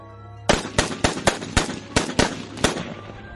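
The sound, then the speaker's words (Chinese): A rapid burst of gunfire from a Type 64 pistol emptying its magazine: about nine sharp, loud cracks fired in quick, slightly uneven succession, each with a short ringing tail, over a faint low hum and no voices. “直接一梭子连发打进了萧三达的脑袋里。”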